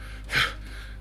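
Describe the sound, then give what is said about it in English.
A voice imitates heavy panting with one short, sharp breathy gasp, surrounded by a quiet, steady hum and no talking. “hands on his hands on his knees like that like panting like”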